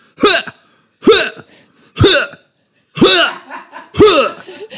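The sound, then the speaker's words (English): A person imitates someone else's loud sneeze with five sharp, forceful vocal bursts roughly a second apart, each ending in a falling, squeaky tone, without any talking. “It doesn't sound like a sneeze. Here's what it sounds like.”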